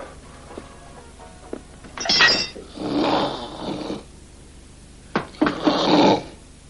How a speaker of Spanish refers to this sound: Willy sale y Ben se desviste. Luego ronca sobre la cama con su chistera puesta.